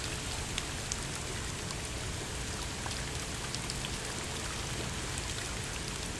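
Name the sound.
rain falling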